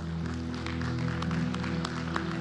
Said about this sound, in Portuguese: Aplaude a Deus por isso, aplaude.